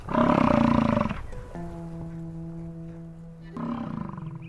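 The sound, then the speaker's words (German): A European bison lets out deep, rumbling bellows: one loud roar, a steadier droning groan, then another roaring bellow. No voices. “Safari in Europa, Wiesente beim Grasen beobachten.”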